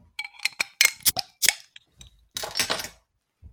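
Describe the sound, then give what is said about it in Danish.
A bottle of slow beer being opened: a quick series of sharp glassy clinks and cap rattles, followed by a louder, half-second hiss of escaping fizz as it bubbles up, then quiet. “skal vi åbne den? Ja, lad os det.”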